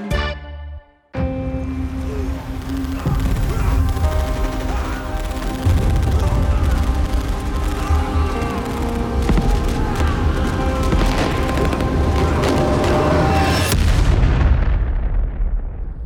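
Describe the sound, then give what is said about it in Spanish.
A loud, relentless barrage of machine gun fire rattles on for over ten seconds, dense rapid shots mixed with heavy booms, then cuts off abruptly. “pónganse pecho tierra, porque hoy el atole agarra su metralleta, se pone su pañoleta de Rambo y le entra de lleno a los balazos contra los narcos y mafiosos.”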